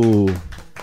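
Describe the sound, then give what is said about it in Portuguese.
A voice trails off, then a few sharp hand claps from the hosts follow in a loose, uneven rhythm, applauding a listener's argument: short, bright smacks at moderate loudness. “Palmas para você.”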